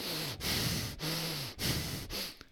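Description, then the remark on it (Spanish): A voice imitates the heavy breathing of Conan O'Brien while recording: four loud, rasping breaths in a steady rhythm, each with a slight voiced groan underneath and short pauses between them. “Está grabando y se le escucha la, respiración al chabón.”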